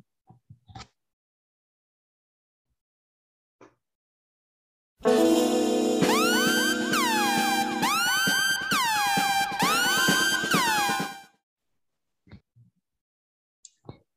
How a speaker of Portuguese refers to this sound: Então, se vocês já ouviram a sirene, sabem que chegou a hora dos spoilers, né?